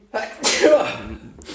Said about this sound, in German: Gesundheit